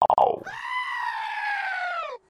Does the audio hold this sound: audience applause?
no